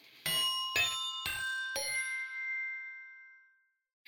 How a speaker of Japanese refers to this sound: ちょっとピンポン、ね、あごめん今日我が家で収録してるんで、はい、ちょっとピンポンちっあの宅配を取ってますすません、はい